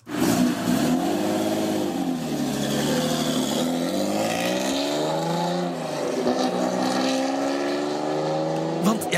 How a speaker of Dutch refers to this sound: Maar, maar eh, eh, bijvoorbeeld, een, een echte supercar van BMW... zou die, zoals de M1 van vroeger, hè, zou die dan zo moeten klinken?